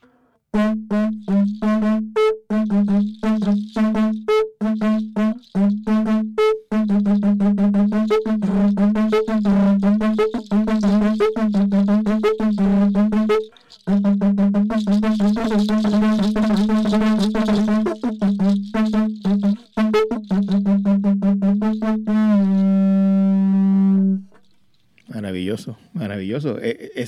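A low-pitched bass conch shell trumpet, deeper than a soprano conch, blown in loud, buzzy blasts, some stuttering in quick pulses, others held long, with brief pauses between and a final sustained note.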